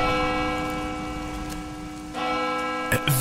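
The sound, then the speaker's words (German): A church bell rings steadily with rich, sustained overtones, its tone hanging in the air over a soft wash of rain, with a couple of brief knocks near the end. “Wer läutet denn jetzt die Kirchenglocke?”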